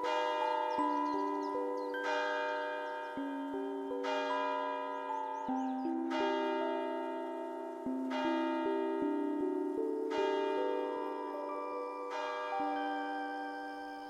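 Village church bells ring at noon while snow falls, pealing continuously for about fourteen seconds, several bells striking in overlapping rounds with rich ringing overtones, steady, with no voices.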